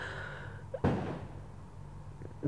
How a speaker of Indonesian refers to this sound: anjir nih petasan masih aja nih